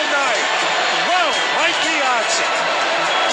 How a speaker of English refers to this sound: This crowd was ready. They wanted to shout and scream all night. And boy, did they get an opportunity from Mike Piazza.